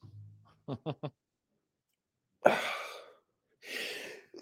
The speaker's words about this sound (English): Sorry, I got sneeze.